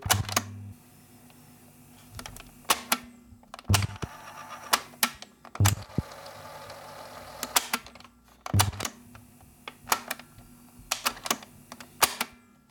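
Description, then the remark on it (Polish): A tape recorder, plugged into mains power and a mixer, is operated with a microphone held close: its buttons clunk and click in irregular bursts, sharp mechanical clacks separated by a low steady motor hum and faint whirring of the mechanism. No one speaks. “Teraz jeszcze raz, proszę Państwa, przyłożę bliżej mikrofonu, tak żeby Państwo mogli usłyszeć pracę przycisków i mechanizmu”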